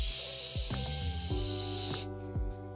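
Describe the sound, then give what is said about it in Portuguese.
A voice imitates white noise like a TV gone off the air, used to help a baby sleep, with a steady, breathy hiss lasting about two seconds, then stops, leaving faint low background sounds. “Outra coisa que também ajuda muito é o ruído branco, que funciona como se fosse aquela quando a televisão sai fora do ar, que faz o barulho assim.”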